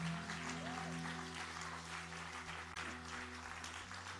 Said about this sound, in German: gebt ihr doch einen riesen Applaus.